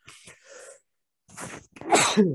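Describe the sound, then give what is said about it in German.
A few quick, breathy gasping inhales build up, followed by a pause and then one loud, explosive sneeze, ending with a short voiced tail. “Entschuldigung, Moment, ich glaube, ich muss niesen.”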